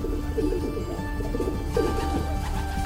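Soft, low pigeon cooing rolls along steadily in a continuous murmur, several burbling coos overlapping with no one speaking.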